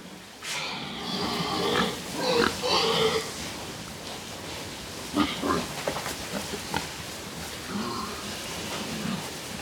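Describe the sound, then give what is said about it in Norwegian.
A pig grunts and snorts in several rough, uneven bursts, with short pauses between them, over a steady hiss of background noise like light rain. “Og grisen Jeg ville ikke levd uten.”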